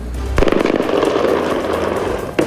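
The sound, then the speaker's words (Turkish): A loud explosion of a dropped barrel bomb in the town of Resulayn, Syria, bursts in suddenly and rolls into a long, crackling rumble, followed by the sharp start of a second blast right at the end. “Ardından bomba yüklü variller bırakıldı.”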